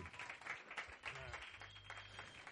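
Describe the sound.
A crowd applauds steadily, a dense wash of clapping with a few louder bursts, fairly close and sustained through the moment, with some voices faintly mixed underneath.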